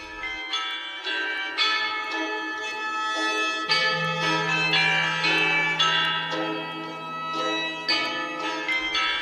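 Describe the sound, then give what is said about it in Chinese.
The ancient bronze chime bells of Marquis Yi of Zeng, unearthed from his tomb and kept at the Hubei Provincial Museum in Wuhan, China, ring out in a melodic sequence, bright metallic strikes overlapping with long shimmering decays, while a low sustained tone hums beneath the middle passage. No voices are present. “曾侯乙编钟：中国之声”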